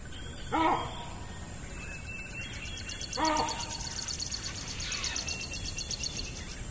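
Baboons give two loud, close barking calls, a few seconds apart, recorded on an afternoon at Mmabolela by the Limpopo River, over a steady background of buzzing insects and faint bird chirps.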